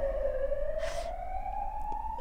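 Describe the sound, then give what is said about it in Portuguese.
An ambulance siren wails steadily, its tone slowly rising in pitch as it passes, over a low rumble of traffic noise. “Deixa deixa passar a ambulância.”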